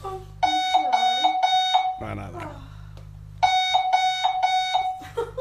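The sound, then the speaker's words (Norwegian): A loud, piercing alarm clock beeps in rapid repeating bursts over a low buzzing vibration from a small vibrating pad placed under the pillow, pausing briefly while a person reacts, then blaring again. “Eh, fordi denne her har både en kjempehøy lyd, men også en sånn liten plate du skal legge under puta, som vibrerer.”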